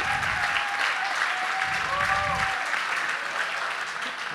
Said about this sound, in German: Bitte auch für Sie einen herzlichen Applaus.